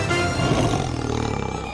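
A lion roars loudly, a single deep, rumbling growl that holds steady for a couple of seconds with no voices around it.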